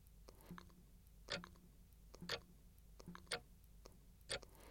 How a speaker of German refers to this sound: Meine Großmutter wohnte in einem alten Reddachhaus am Deich. Das Ticken der Wanduhr teilt die Zeit in ihre Einheiten.